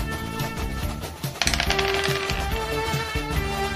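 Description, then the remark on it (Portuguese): Two dice clatter and tumble across a hard surface in a quick burst of sharp clicks, landing on a one and a three, with steady background music playing throughout. “Então eu vou tentar correr até ele e dar o trovão gatinho. Dois dados.”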